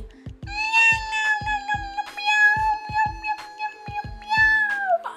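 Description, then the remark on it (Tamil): A cat frightened by a rat yowls in one long, loud, sustained wail as it runs away, holding a steady pitch and sagging at the very end, over a regular pattern of low thumping beats. “அப்படின்னு பயந்த சத்தத்தில் கத்திட்டு ஓடியே போயிடுச்சு”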